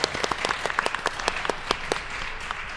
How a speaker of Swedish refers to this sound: Applåd för det.